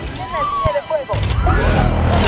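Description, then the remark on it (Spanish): Gunfire from a scene in the film Iron Man 2: a couple of sharp, loud shots crack out, followed by a heavy booming rumble, with vocal-like tones and voices mixed in the chaotic soundtrack. “Disparen, pero el Rino sí seguía disparando.”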